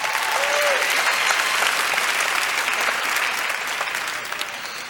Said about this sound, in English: How many people out there have seen Chris Rock's HBO special? Give a hand clap if you saw it.